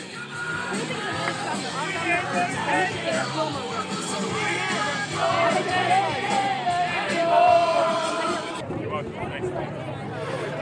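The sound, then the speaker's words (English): Hundreds of people at the state capitol in Pennsylvania loudly shout and sing along together to a song played on a radio, a dense, continuous roar of many voices that holds steady and swells slightly near the end. “hundreds of people here at the state capitol are uh, follow, screaming along.”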